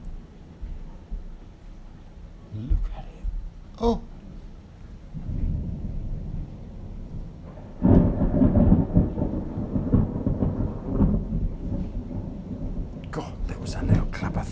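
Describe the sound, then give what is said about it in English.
A thunderstorm with lightning over Eastbourne: heavy, rolling thunder breaks in loud low rumbles over a constant roar of torrential rain, with a sharp crack near the end. “Thunder and lightning over Eastbourne town.”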